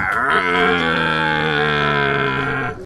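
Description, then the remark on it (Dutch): A person imitating a rutting red deer stag at the Dutch national deer-roaring championship (Nederlands kampioenschap Burlen) in the Netherlands: one long, loud, steady bellowing roar, deep and rich in overtones, held for nearly three seconds before breaking off abruptly. “Deelnemers, mensen wel te verstaan, konden daar hun beste versie van een bronstig edelhert brengen.”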